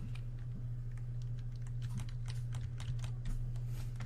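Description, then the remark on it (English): Rapid, irregular clicking of keys on a computer keyboard as a chat message is typed, steady throughout, over a low constant hum with no voices. “Hey, stop typing so you can hear this message.”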